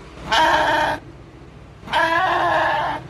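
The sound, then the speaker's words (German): Two loud bleats from a sheep that has just eaten its fill, each lasting under a second with a short pause between, their quavering, nasal tone standing out against a quiet background. “Die Schafe sind ja jetzt satt, also kann ich jetzt auch wieder nach Hause gehen.”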